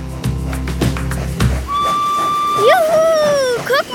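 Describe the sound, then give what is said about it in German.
An old steam locomotive, Germany's very first, carrying children around a museum, chuffs and rumbles, then a long, loud steam whistle blows steadily before bending in pitch and fading, with the engine's low rumble continuing underneath. “Vor allem die kleinen Gäste fuhren begeistert mit der alten Dampflok um das Museum herum”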